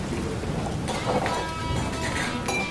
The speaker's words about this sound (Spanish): Y justo cuando iba a cruzar la puerta, comenzó a llover fuertemente.